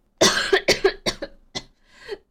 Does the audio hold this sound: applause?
no